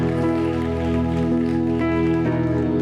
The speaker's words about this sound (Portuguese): Vamos aplaudir ao Senhor, é para ele toda honra, toda glória.